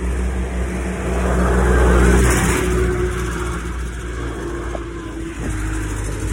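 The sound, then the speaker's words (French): A tractor's heavy engine rumbles past, growing louder as it draws near around the midpoint and then fading slightly as it continues, a steady low droning motor with no voices. “désolé pour le tracteur.”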